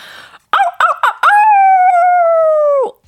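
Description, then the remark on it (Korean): A wolf lets out a few quick rising yelps, then one long, steady howl that holds its pitch for over a second before dropping off. It's loud, with no voices. “늑대네요.”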